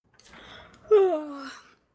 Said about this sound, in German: Gähnend erhob sich auch heute die Dörte